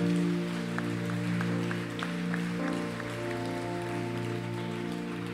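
A crowd applauds steadily for several seconds, a dense wash of clapping with occasional sharper claps, over a sustained low musical chord that holds throughout.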